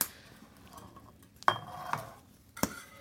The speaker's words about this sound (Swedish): Oj! Eldar du med granved? Ja! Det är därför det sprakar så mycket.